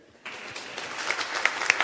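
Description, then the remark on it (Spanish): An audience breaks into applause for a man who gave a good answer, after a brief pause, a dense, steady patter of many hands clapping at moderate volume, with a few sharper claps standing out and no voices. “Un aplauso para él.”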